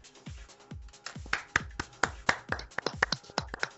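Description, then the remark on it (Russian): Hand clapping to congratulate Robbie E on getting married, a quick uneven run of sharp claps that builds slightly in loudness, with no talking over it, like a few people applauding briefly. “Хлопаем.”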